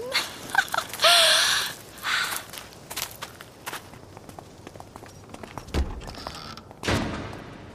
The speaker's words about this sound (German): Hast du das gehört? Ich glaube, das war die Eingangstür. Wir sind jetzt wohl allein. Mhm. Wer auch immer hier drin war, ist offenbar gegangen.